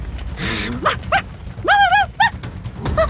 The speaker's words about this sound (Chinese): 大家刚把手掌碰在一起，突然天空中传来了一阵扇动翅膀的声音，小狗托托的尾巴顿时像被电了一样，对着天空大喊起来。